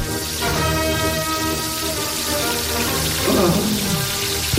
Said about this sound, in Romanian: Deci odată că există problema asta cu și ați auzit mai devreme cu apa curgătoare, apa cristalină, dar uh, mai există și uh, problema asta.